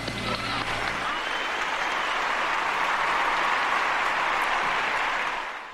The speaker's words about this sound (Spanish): Aplausos, aplausos que no son para nosotros, son para nuestro bloque de fútbol, para arroba o para José Mabet y para arroba pens apuestas.